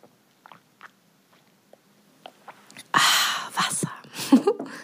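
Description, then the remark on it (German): A few soft clicks and taps, then water pours into a drinking glass, a loud, splashy gurgle lasting a couple of seconds, as the speaker pours themselves a glass of water. “ich schenke mir mal gerade ein Wasserglas ein”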